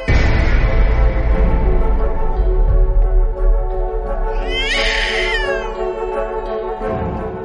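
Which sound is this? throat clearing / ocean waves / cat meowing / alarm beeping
cat meowing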